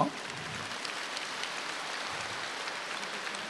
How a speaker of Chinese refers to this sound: 鼓掌